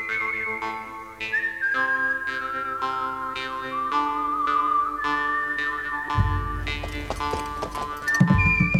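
Horse hooves clip-clop at a steady walking pace, evenly spaced, under a sustained whistled melody, with a heavier low rumble joining toward the end.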